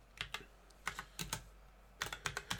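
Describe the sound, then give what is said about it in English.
Clicking of keys on a new keyboard with mechanical key switches, sharp clacky strokes arriving in quick bursts with short pauses between them, no voices present. “I got a new keyboard, and I imagine it's just fucking loud because it's mechanic mm. mechanical key switches.”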